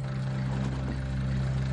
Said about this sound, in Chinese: 随后，绑匪驾车就消失在了夜幕中。